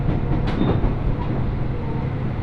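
Steady, loud rumble of a Mizushima Rinkai Railway train rolling along the rails from Kurashiki toward Mitsubishi Jiko-mae, Japan, heard from inside the carriage, with a continuous low drone and faint rattling throughout, no voices present.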